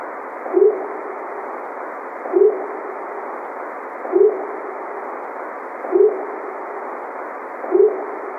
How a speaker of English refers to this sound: Yeah, that's a cool one. That's a cool one. I like that one. I, it has this sort of whoop, like a, uh, the rising pitch that uh, the whoops often have. Sound legit to me. Very similar to the uh, whoop I heard before we made our way out.